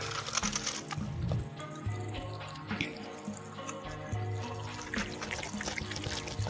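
Dr Pepper soda pouring from a can in a steady, unbroken stream for several seconds, with a faint fizzy hiss and gurgling underneath. No one speaks.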